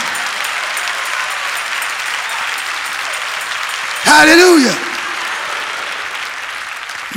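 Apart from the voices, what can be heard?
audience clapping hands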